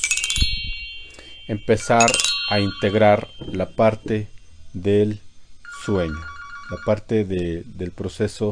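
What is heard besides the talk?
phone ringing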